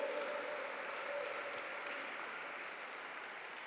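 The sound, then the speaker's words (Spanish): A church audience applauding the Lord steadily, a dense, even wash of many hands clapping that holds at a constant level throughout with no voices standing out. “Dale, dale, dale un fuerte, fuerte, fuerte, fuertísimo aplauso a nuestro Rey, nuestro Señor, preciosísimo.”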